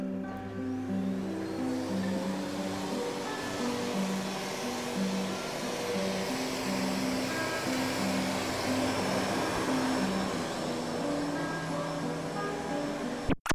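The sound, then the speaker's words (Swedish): A vacuum cleaner drones steadily for the whole stretch, its motor whine holding constant with shifting tonal hum underneath, then cuts off abruptly with a click at the very end. “Veganen dammsugar.”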